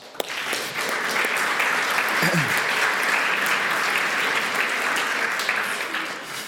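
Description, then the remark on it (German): A crowd applauds steadily for several seconds, a dense, even wash of many hands clapping at constant loudness, with a brief murmur of voices partway through. “wenn der Podcast los ist, wir klatschen für dich.”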